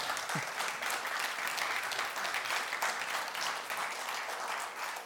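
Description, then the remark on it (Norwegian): An audience claps steadily to mark five years since its pastor was installed, a dense wash of many hands sustained at an even level throughout, with no voices standing out. “Det er bra de klapper fortsatt etter fem år, eh, for vi har på en måte ingen planer om å stikke i det hele tatt.”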